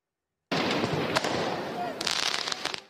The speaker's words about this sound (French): Des tirs de mortier, des jets de projectiles sur les forces de l'ordre. Place Bellecour à Lyon, des violences urbaines ont eu lieu après la défaite de l'équipe de France.